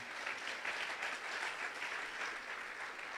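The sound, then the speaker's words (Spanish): An audience at a church service applauds the Lord together in a dense, steady wash of clapping that holds an even, fairly loud level for a few seconds with no voices standing out. “Aplauda al Señor de la Gloria.”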